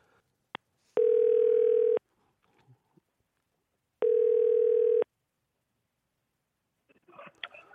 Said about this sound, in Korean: 8224님한테 어, 어, 전화 한번 걸어보겠습니다